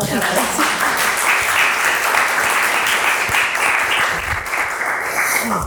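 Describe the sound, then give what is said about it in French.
Steady audience applause after a research presentation, a dense wash of many hands clapping at an even, loud level for several seconds without pause. “Euh, je, vous propose d'applaudir encore.”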